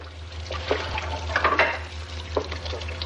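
Water runs steadily from a kitchen sink tap, with a few brief clinks and clatters of dishes over a low, constant hum, moderately quiet, with no one speaking.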